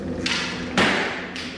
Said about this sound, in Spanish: Intentan escapar urgente del hospital. Corren a toda prisa, cuando llegan a la puerta, la misma se cerró para no abrirse más.